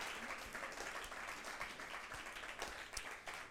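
A church crowd applauds its pastor steadily, a dense wash of many overlapping hand claps that holds at an even level for a few seconds, sounding soft.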